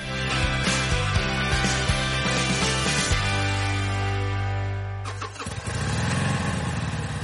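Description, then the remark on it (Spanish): A motorcycle engine cranks and sputters through a few rapid bursts, catches, then settles into a steady loud idle before revving up sharply, with no voices. “Moto.”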